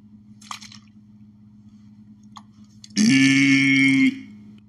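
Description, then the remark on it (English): A steady low hum with a couple of faint clicks, then a loud burst of hissing spray lasting about a second before stopping abruptly, as holy water is sprayed from a bottle onto a person. “I'm putting holy water.”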